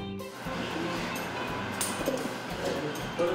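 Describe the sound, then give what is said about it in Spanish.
A patented, institute-designed agave shredding machine runs with a steady, loud mechanical roar and grinding rumble, continuous throughout, with a few brief metallic clanks near the end. “Esta trituradora está patentada es de diseño del instituto, nosotros lo hicimos”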